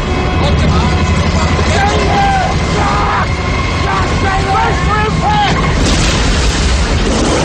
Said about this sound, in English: But the plane hits severe weather and crashes.